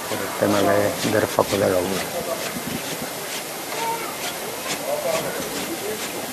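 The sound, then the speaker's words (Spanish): Men's footsteps on the wooden boards of a procession float on Holy Monday, a steady run of soft knocks and scuffs over a constant hiss, with people's voices murmuring underneath, louder at the start. “Y enseguida vamos a escuchar también los pasos de los hombres sobre la tabla de madera.”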